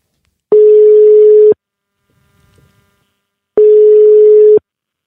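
Two long, steady telephone ringback tones, each lasting about a second with a pause of roughly two seconds between them, heard clearly on the line while a call is being placed. No one speaks.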